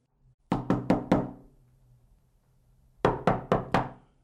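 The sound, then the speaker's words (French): Knocking on the front door of an old wooden house that has no doorbell: four firm, evenly spaced raps, a pause of about two seconds, then four more knocks with the same steady rhythm, clear. “Il n'y a pas de sonnette, dit Amy, qui décide de frapper à la porte.”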